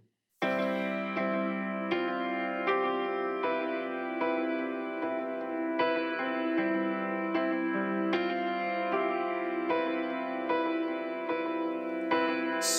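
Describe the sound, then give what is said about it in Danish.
A recorded song plays steadily and loud in full length, with sustained harmonic tones and a regular pulse of chord changes every second or so, continuous with no talking over it. “vi skal lige høre det meget smukke … øh, i, i fuld længde”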